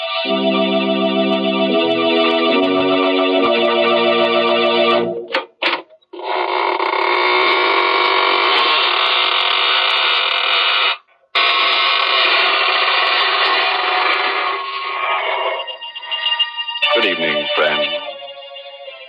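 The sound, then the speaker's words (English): The creaking door of the Inner Sanctum Mysteries radio show opens slowly in long, loud, grinding groans with two brief pauses, ending in wavering rises and falls of pitch, after a few seconds of stepped organ-like tones. No one speaks. “This is your host to the inner sanctum inviting you in through the creaking door.”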